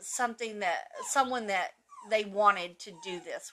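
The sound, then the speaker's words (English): A female dog whines and whimpers with high, wavering cries from another room, faint and muffled beneath a person speaking. “And apologies then, for the dog in the background.”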